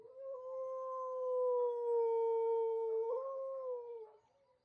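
A single female sled dog named Refried, who ran on a race team, lets out one long, sustained, fairly loud howl, holding a steady pitch before lifting slightly near the end and fading out. No talking.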